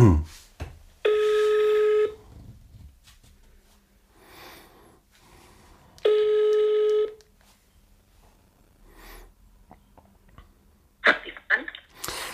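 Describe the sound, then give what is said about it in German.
A person calls their mother on speakerphone: two long, steady electronic ringback tones about five seconds apart, with quiet rustling and a few clicks in between and a clatter near the end. “Warte mal, ich rufe meine Mama an.”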